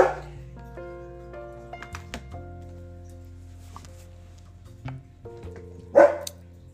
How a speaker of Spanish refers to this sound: perdonen por, por el perrito que está aquí ladrando,